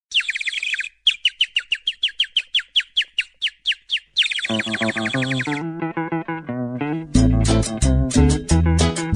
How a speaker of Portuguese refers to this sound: A gente chamou de Cúmbia do Passarinho